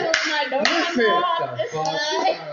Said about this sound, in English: You just clap. That's it. just clap.